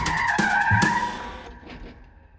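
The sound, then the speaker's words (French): A car carrying a cornetist and two musician friends brakes hard on a snowy street in the dark, its tires letting out a loud, sustained screech for about a second and a half before the skid fades out as the car stops. “Arrêtez la voiture Tout de suite”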